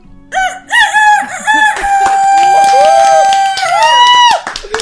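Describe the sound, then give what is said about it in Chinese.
A person imitates a rooster's crow: a few short rising syllables, then a long sustained harmonic note that bends upward and cuts off, loud and alone with no talking. “我还有个技能是学鸡叫，就鸡公鸡打鸣，我学的特别像”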